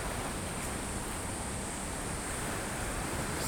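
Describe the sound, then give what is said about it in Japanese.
Pacific Ocean surf washes against a rocky shoreline in a steady, dense roar, fairly loud, with no distinct individual crashes standing out and no voices. “すごいなこのいやこの波の音聞こえますか結構ねやっぱり太平洋ですねさすが私はあの瀬戸内海生まれなので海が大荒れしてるってもそんなでもないですけど太平洋のこの波の高さは怖いんですよね慣れてないから”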